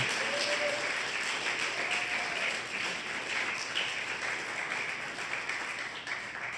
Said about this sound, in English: Now give them a clap offering. Hallelujah. Hallelujah.